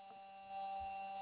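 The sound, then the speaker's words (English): A steady electronic whine from the electronics of a rover on Mars hums continuously, a thin sustained tone over a low droning buzz, faint and even, with a soft low thump partway through and no voices. “The whine is from the electronics.”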